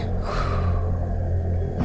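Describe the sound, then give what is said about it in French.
A deep, audible breath drawn in, then slowly let out during a mindfulness breathing exercise, over a faint low hum, with no talking. “Commence par inspirer profondément puis expirer.”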